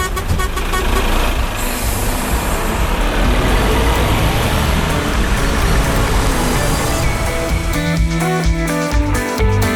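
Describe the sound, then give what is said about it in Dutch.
A loud car engine rumbles steadily with heavy road noise as the car drives away in the evening sun, then near the end a few horn-like tones sound over the motor. No one speaks. “Wij rijden hier weg, nog steeds in de avondzon.”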